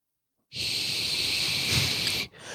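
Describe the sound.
After a brief silence, a voice makes one long, steady hiss for almost two seconds, imitating the hissing of a tumble dryer that stood open and switched off in a bathroom, then breaks off and starts a second, shorter hiss.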